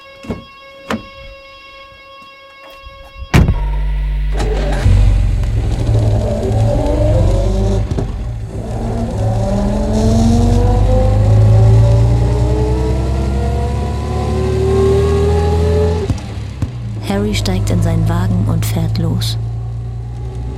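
A car engine roars to life and revs hard, its pitch climbing as a man drives off in it, then it drops back to a steady, rumbling drive.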